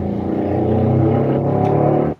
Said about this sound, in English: we got, we got a truck passing by.